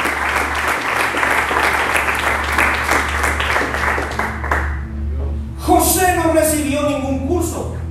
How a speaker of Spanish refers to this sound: ¿Alguien dice amén a esto? ¿Alguien puede aplaudirle al Dios de los tiempos en esta mañana?